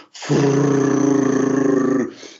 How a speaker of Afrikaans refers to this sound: ek moes terugry met die eenvoudige boodskap dit is 'n snip wat 150 gram weeg dit is nie 'n merrie nie